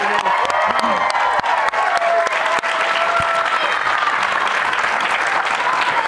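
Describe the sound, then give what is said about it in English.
A crowd applauds the introduction of BYU Cougars head coach Kalani Sitake, with dense, continuous clapping and scattered whoops and cheers rising above it, holding loud and even throughout. “Ah, so, great crowd again.”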